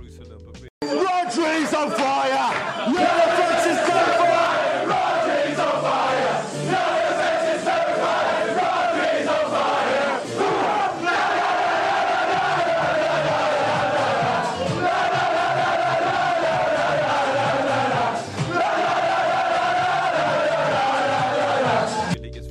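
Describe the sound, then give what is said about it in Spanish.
The Manchester City football team celebrates in the dressing room after lifting the trophy known as la orejona, a crowd of voices loudly chanting and shouting together without pause, including a chant about Spanish midfielder Rodri, with occasional sharp yells and claps rising out of the steady roar. “Bien, ahí como pueden escuchar en la celebración de, del Manchester City, después de haber levantado la orejona en el camerino ahí con el tema que eh, lo acuñaron a Rodri ahora, el volante español”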